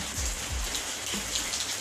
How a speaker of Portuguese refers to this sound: Passei aqui na frente de casa para ver se tem alguma coisa que não, vá, não precisa, não pode, né? Tomar chuva. Então, o que parece, está tudo no seu lugar. Quem merece tomar chuva está tomando chuva